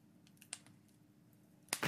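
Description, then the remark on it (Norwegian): A fireplace crackles softly, with sparse, irregular snaps and pops over a low steady rumble and a louder cluster of crackles near the end. No voices. “Er det ikke noe sånn, sånn hyggelig peis? Det er bare knitring.”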